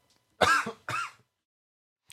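A man coughs and clears his throat in two harsh bursts, followed by quiet and the start of another rough sound at the very end.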